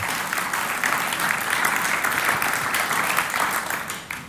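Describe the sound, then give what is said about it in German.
An audience applauds God steadily for about four seconds, a dense, even wash of many hands clapping at once that fades slightly at the end, with no voices standing out. “Und geben wir diesem Gott einen Applaus und sagen, das kannst du schaffen.”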